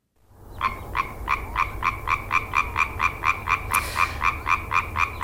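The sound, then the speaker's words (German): A tree frog croaks in a fast, steady series of sharp, regular calls, loud, repeating without pause over a low background hum. “Aber es ist ein Frosch, oder? Mhm. Es ist ein ja. Frosch. Laubfrosch. Ja.”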